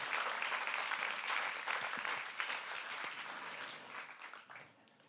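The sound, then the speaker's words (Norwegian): An audience applauds someone who has just been baptized. Many hands clap steadily in a dense wash at a moderate level that gradually thins and fades toward the end, with no talking. “En liten applaus til han der som var så flink og ble døypt.”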